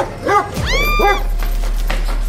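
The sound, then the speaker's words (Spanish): A huge dog barks twice in quick succession as it runs toward the speaker, loud, with a slightly whining, yelping edge. No one speaks, and a low steady hum lingers after the barks. “Cuando el perro corrió hacia mí, horrorizada, escapé a gran velocidad.”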